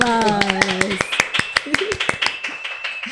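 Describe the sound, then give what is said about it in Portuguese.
A short round of applause welcoming a guest: brisk, irregular claps from a small group run throughout, with a brief voiced whoop early on and a thin, steady high tone underneath. “Uma salva de palmas.”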